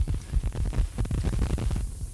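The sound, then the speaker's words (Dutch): Low, throbbing interference hum on a broadcast, with a rough, pulsing texture, steady in loudness and running unbroken for about two seconds with no voices over it. “Een klein beetje storing.”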